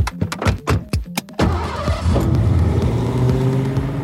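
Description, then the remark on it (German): A car engine cranks with several quick sputtering bursts, then catches and settles into a steady, loud running rumble that rises slightly as it revs, with no voices. “dass er für den Rest seines Lebens Kunos Armband trägt und klingt wie das Auto von David Hesselhoff.”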